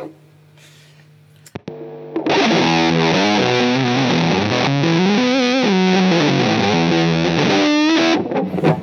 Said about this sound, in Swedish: Det här är liksom halsmick på Les Paul, så det är ganska... Det är ju ganska basigt i sig.